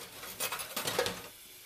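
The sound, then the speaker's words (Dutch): Tap water runs steadily into a sink, a soft continuous hiss, while dishes and cutlery clink briefly in the middle as someone washes up by hand, the sink plug not yet put in. No one speaks. “Ik was juist al, het water loopt en al, ik was vergeten eh, zodat dat een of het stopje in te duwen.”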